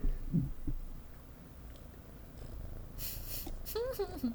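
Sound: cat purring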